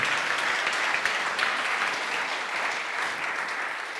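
An audience applauds steadily, a dense wash of clapping hands that holds at an even, fairly loud level throughout with no voices standing out.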